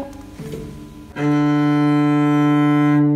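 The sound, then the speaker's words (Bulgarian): A cello string is bowed, sounding one low, rich sustained note for about two seconds, steady, after a brief softer scrape of the bow at the start. “ето така се възпроизвежда звук с лъка.”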